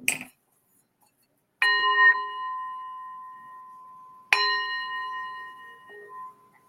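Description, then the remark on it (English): A singing bowl is struck twice, a few seconds apart, each strike blooming into a clear, sustained metallic ring with shimmering overtones that slowly fade. No one speaks. “Ooh, let me do the bell, the bowl.”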